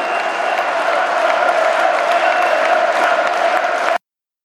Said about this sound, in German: Also mir war das wichtig, am Ende noch diese Jubelarie zu hören und auch diese Höcke-Höcke-Rufe.